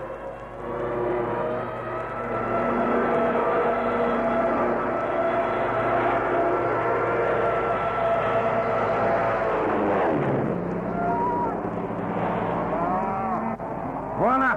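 Loud, continuous droning of propeller aircraft engines passing low overhead, a thick harmonic roar that holds steady, then dips and shifts in pitch near the end as the planes go by.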